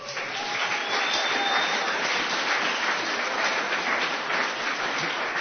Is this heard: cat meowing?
no